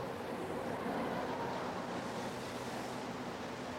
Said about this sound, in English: And if you can forget that it's raining, it has done that before.